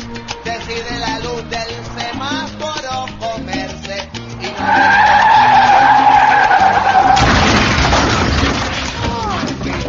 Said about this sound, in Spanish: cuando la luz cambia amarilla, la rueda de carro chilla y el tipo se cree un James Bond